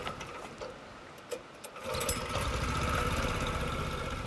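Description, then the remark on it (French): A boat engine in Vietnam chugs steadily as the boat heads back out toward daylight from a natural wonder, its low throbbing rumble rising and growing louder about halfway through, then holding at a constant mechanical drone with no voices. “on va quand même repartir pour retrouver la lumière avec notre bateau là.”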